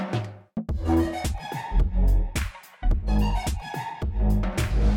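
A live band plays loudly in the background at Tivoli, with pounding low drums and bass, dense harmonic instruments and bursts of cymbal crashes. A brief drop midway, then the full ensemble surges back in.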